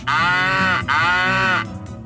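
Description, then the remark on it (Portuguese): A toy moo box, tipped upside down, lets out two loud, drawn-out mechanical moos in quick succession, each a buzzy, slightly falling bovine groan, with no voices around them. “Era, era, uma, caixa, era uma caixa que fazia som de vaca.”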